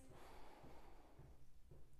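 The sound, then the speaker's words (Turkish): A slow, deep inhalation drawn in through the nose during a breathing exercise while walking, fairly quiet, a steady airy rush lasting a couple of seconds with no talking over it. “Tekrar al nefes.”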